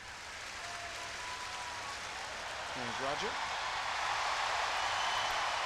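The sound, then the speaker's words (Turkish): A large crowd in the stands at a tennis tournament in Boston cheers and applauds Federer, who arrived on crutches, a dense wash of clapping and roaring that swells slightly toward the end, with a brief whistle or shout rising midway. “Sesli olarak verebiliriz, ekrana gelebilir nasıl bir tezahürat aldığını Federer'in.”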